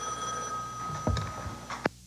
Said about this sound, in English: at 1803, the phone rings.